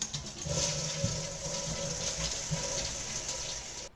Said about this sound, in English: Sitting on the toilet. Now flush.